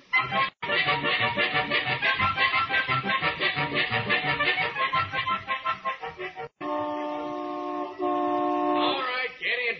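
After several seconds of busy, overlapping voices, the horn of a small convertible coupe blares in a loud, steady, sustained honk that shifts slightly in pitch partway through before cutting off.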